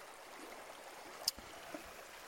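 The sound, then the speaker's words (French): Soft, steady rushing of a shallow small river with icy water, fairly quiet, broken by one brief sharp splash midway, like a foot moving through the water as someone wades across. No one speaks. “Il faut traverser, c'est une petite rivière.”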